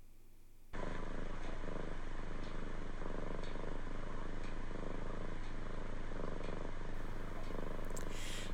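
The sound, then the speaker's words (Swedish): A pet cat purrs, a steady low rumble swelling and easing in an even rhythm of about one cycle per second, continuing alone after a brief quiet start. “Hör bara vilken liten vilsam motor!”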